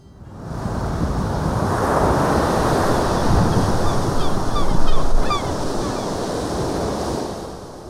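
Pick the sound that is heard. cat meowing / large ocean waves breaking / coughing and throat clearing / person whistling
large ocean waves breaking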